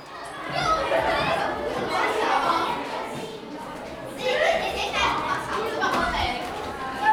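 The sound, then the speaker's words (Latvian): A lively hubbub of many children chattering and playing at a school, voices overlapping continuously at moderate loudness, with occasional brighter shouts rising above the general noise. “Šodien viesojāmies skolā, lai uzzinātu, kas ir draudzība bērnācībai.”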